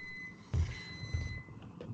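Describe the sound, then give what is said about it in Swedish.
A microwave oven beeps with a high-pitched, steady electronic tone that holds for most of the two seconds, while a couple of dull low thumps sound underneath. No one speaks. “Var eh, det någon som fick ett fax nu eller vad fan var det? Det var min mikro.”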